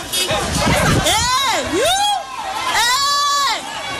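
A woman screams as authorities take away her belongings, over a noisy, agitated crowd: two long, high-pitched wailing cries, the first wavering up and down, the second sustained and piercing, with background chatter and shouting throughout.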